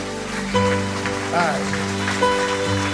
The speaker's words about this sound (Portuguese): Aplauda Ele, vamos adorá-lo.